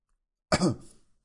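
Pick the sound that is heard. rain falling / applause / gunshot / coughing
coughing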